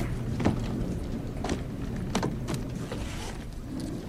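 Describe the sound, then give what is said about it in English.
A hotel elevator door slides along with a steady mechanical rumble, punctuated by several sharp clicks and clunks at uneven intervals, moderately loud, with no voices. “This is the elevator.”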